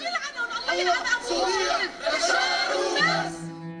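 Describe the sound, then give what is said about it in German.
A large crowd of residents in a district of Aleppo, Syria, cheering regime soldiers, chants the slogan "God, Syria, Bashar and nothing else" together, many voices shouting loudly, with a dense, sustained roar of overlapping voices throughout. “Gott, Syrien, Bashar und sonst nichts, rufen sie.”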